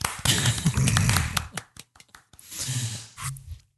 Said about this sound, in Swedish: Applåd för Norge.